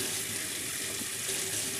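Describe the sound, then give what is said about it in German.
Tap water runs steadily over half a cup of red lentils being rinsed in a sieve, a continuous hiss and splash with no breaks and no voices. “Und so Abwasch und schön waschen. Einfach im Sieb ein bisschen herum.”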